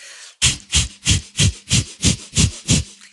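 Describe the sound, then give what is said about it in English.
A person demonstrates breath of fire: eight rapid, evenly spaced sharp breaths through the nose, each a loud hissing sniff-like puff with a breathy low rumble, at a steady quick rhythm with no talking. “these crazy breathing techniques like breath of fire”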